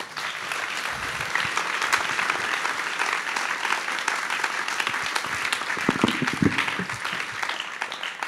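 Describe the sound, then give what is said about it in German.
Sustained applause from a crowd, a dense, steady wash of many hands clapping at an even loudness for several seconds, with a few faint voices mixed in. “Ein Applaus für euch.”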